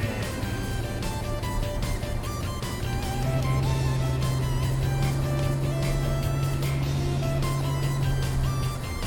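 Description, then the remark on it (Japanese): A car engine hums steadily and quietly as the car climbs uphill, a smooth low drone that grows slightly fuller partway through, with road noise and occasional clicks around it and no voices. “いい感じでいい音スムーズに上がりますね、うん、エンジンの音も静かで、うん、いい音がするね”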